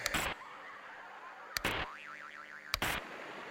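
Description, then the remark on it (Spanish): An old television set: three sharp clunks, each followed by a short burst of static, spaced about a second apart, with a low hum and a brief wavering tone between them. “Era la televisión cuando tú eras el control remoto de tu casa.”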